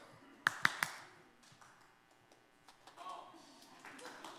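Three sharp, quick hand claps in fast succession near the start, bright and crisp, followed by a low murmur of background sound.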